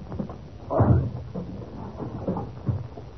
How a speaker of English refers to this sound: The door's locked. Oh, we must break it open then. Come on. One, two.